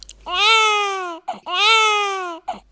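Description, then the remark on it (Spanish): A German baby cries in two long, loud wails, each rising briefly then sliding downward in pitch, separated by short gasping breaths, with no talking. “Recordad que el francés llora hacia arriba y el alemán hacia abajo.”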